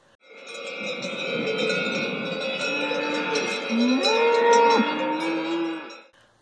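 Cows mooing, several long drawn-out lowing calls overlapping one another, fairly loud, with a dense, sustained bellowing that swells near the end before cutting off.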